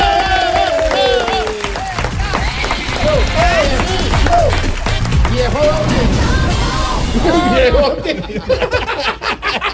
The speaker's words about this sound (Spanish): Con usted aplauso grande, a ver, todos me acompañan con las palmas, dice así,